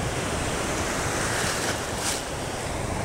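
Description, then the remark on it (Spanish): Ocean waves wash steadily onto a beach in Comodoro in a continuous roar of surf, swelling slightly a couple of times, with some wind noise and no voices. “Este comodorense te lleva al mar”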